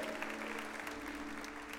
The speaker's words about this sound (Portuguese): Se você crê nisso, dê um glória ao Senhor aí, aplauda no teu lugar.